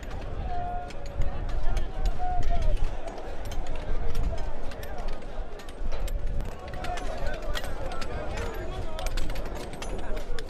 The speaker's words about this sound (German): Was wir hier hören, ist das, worüber Sida Kara in dem Podcast spricht und erzählt, das Geräusch ist das Klicken und Klacken von tausenden Arbeitern, die Kobalt aus der Erde ziehen.